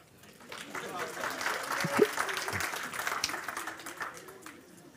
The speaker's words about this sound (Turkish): Kendisini kendisini tebrik ediyor, alkışlıyorum. Lütfen arkadaşlar siz de bir alkış.